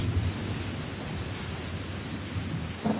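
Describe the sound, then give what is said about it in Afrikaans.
A steady, dense hiss of heavy rain with a low rumbling undertone, continuous throughout and swelling slightly at the very end, like a stormy downpour with no voices. “The storm will keep him in his camp.”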